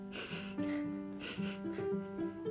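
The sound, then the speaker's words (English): Two sharp, breathy sniffs a second apart, mixed with a soft, wavering whimper, like a giraffe standing on a sidewalk sadly sniffling and close to crying, with no talking. “On the sidewalk stood a giraffe who was sniffling sadly.”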